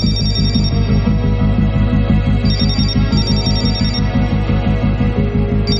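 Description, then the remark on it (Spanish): A phone ringtone plays loudly and continuously, a repeating electronic melody with a pulsing rhythm, with no voices; the phone rings again and wakes a man lying in bed. “Más tarde, el sonido del teléfono de nuevo despierta”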